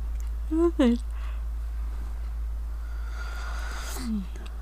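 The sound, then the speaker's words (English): A person yawns audibly: a short voiced groan that rises and breaks off early on, then after a quiet stretch a second, softer yawn sliding downward, over a steady low hum. “Excuse all the yawning.”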